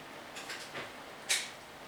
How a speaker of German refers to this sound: Die Türe geht zu. Er macht spannend. Jetzt weiß ich nicht, wird das Ganze noch flambiert? Nein. Die Türe geht wieder auf.